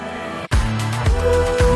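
A short snippet of a bright, catchy pop song plays at full volume, with bass notes and sustained melody, starting after a brief cut near the beginning.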